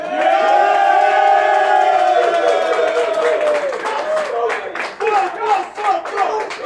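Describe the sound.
A loud live crowd at a rap battle roars and cheers to pick the battle's winner, with sustained shouting voices, then scattered clapping and whoops break through as the noise stays dense throughout.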